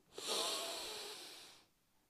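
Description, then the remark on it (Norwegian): A single long, deep breath drawn in through the nose, airy with a hissing rush that swells quickly and holds for over a second before stopping into near silence. “Pust godt inn med nesa”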